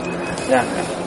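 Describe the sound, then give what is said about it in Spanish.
A brief, tonal call of a nocturnal bird rises out of a quiet, windless outdoor night background outside an old abandoned building, a single short cry with no one speaking. “Yo ahora mismo por los por los cascos escucho la naturaleza que me envuelve, esos pájaros nocturnos y bueno, el resto de criaturas y la vegetación que nos rodea.”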